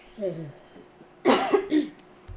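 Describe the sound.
A person coughs in a couple of harsh, raspy bursts, preceded by a brief voiced sound.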